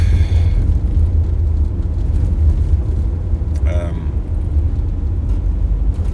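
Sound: car interior rumble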